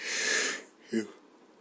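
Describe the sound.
A long, airy inhale rushes in for about half a second, followed after a pause by a brief voiced exhale: a person yawning.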